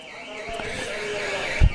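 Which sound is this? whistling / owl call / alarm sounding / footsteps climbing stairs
alarm sounding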